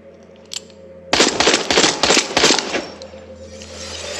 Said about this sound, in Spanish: No se gastan balas así en un Resident Si estás usando el arma de mano porque no te queda ninguna otra arma, tirar cuatro tiros.